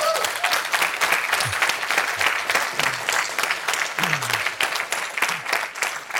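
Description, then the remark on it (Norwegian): Sustained applause from an audience, a dense steady patter of many hands clapping at an even loudness for several seconds, with faint voices and murmurs mixed in beneath it. “Det krever en klapp.”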